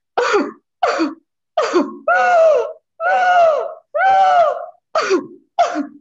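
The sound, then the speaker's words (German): Someone imitates the barking cough of a child's pseudo-croup attack: short, harsh barking coughs alternate with longer, strained, whooping inhalations, about eight loud bursts in a steady rhythm with no talking. “Also das, man nennt es diesen bellenden Husten.”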